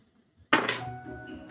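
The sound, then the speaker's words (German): After a moment of quiet, dice are rolled and land on a table with a sharp clatter: a hard knock followed by a short rattle and a faint ringing tail. “Okay, ähm, ich würfel für sie mit äh, Verstand dagegen.”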